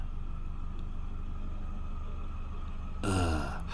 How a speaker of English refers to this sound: Oh, look, a little boat going past. Sounds good. It's got a nice, nice engine. Nice little hum on it.